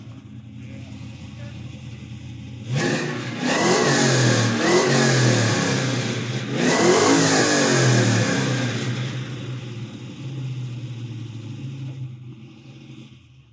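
An old Chevy car engine of about 500 horsepower, with a Currie 9 inch and a T56, roars to life, then revs hard twice in long rising-and-falling surges before settling back into a steady, rumbling idle.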